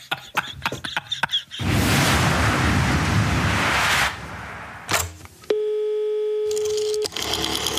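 A telephone ringing tone sounds once as a single steady, clear beep lasting over a second, preceded by clicks and a loud rushing burst of noise. No one speaks.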